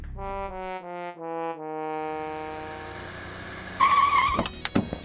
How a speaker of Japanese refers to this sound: 慌ててハンドルを切り U ターンすると高速道路を逆走し始めましたしかしほんの少し進んだところで先ほど自分が捨てたココナッツの皮に乗り上げその弾みで車が横転して逆さまになってしまいました